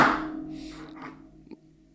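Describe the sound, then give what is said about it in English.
A box tips over with a dull thump that fades out, followed by a couple of small knocks as it settles. No one speaks. “I, I, just, I just, I just knocked over my box.”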